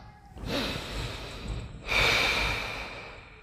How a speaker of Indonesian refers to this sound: Setelah melewati jalur bebatuan, sampailah mereka di pesanggerahan satu. Istirahat sejenak untuk atur nafas